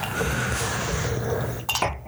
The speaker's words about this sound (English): So, cheers. Clink.